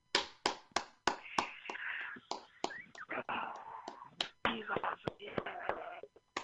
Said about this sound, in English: Wow that round of applause after that, man, wash your hands.